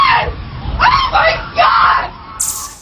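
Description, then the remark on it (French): Several people in offices near the World Trade Center scream and shout in panic after the twin towers are hit, their cries overlapping in loud, ragged bursts, with a sharp high shriek breaking out near the end. “Dans les bureaux avoisinants, l'incrédulité, puis la panique et les larmes.”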